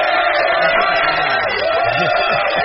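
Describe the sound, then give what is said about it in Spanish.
Steady applause from a crowd fills the whole stretch, dense and fairly loud, with some cheering voices mixed in underneath. “El aplauso”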